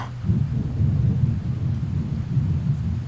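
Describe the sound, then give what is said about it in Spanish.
Steady, heavy rain pours continuously, with a deep, rumbling low roar underneath and no voices, holding at a constant loudness throughout. “La lluvia volvió.”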